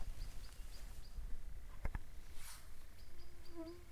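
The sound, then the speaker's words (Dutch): Outdoors with insects buzzing and a few faint high chirps, a bird's wings clap twice in quick succession mid-flight, sharp. “Kwiek, en je hoorde die vleugelslag, hoor je hem? Ja. Hij klapt met zijn vleugels, hè?”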